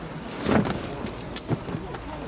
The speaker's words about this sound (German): Wie ihr hört, spannen wir die Regenschirme auf. Weil natürlich, wenn wir eine Tour machen, sind wir nicht frei von Regen.